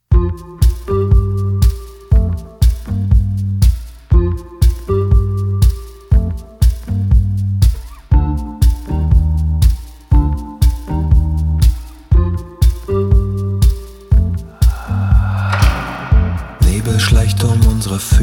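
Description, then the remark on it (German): A new pop single plays loud, driven by a steady, evenly pulsing beat under sustained melodic tones, with the arrangement swelling brighter and fuller near the end. “spielen wir gleich die neue Single”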